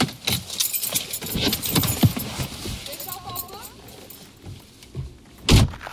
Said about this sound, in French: Le char part pas? Non. c'est weird.